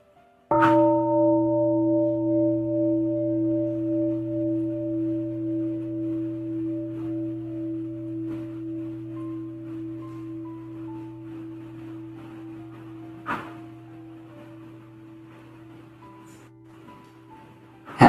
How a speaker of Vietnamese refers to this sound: cho phép quản xin thỉnh một tiếng chuông à, mình sẽ cùng quay về với hơi thở của mình mình hít thở ba hơi thở thiết lập thân quay về với tâm tâm quay về với thân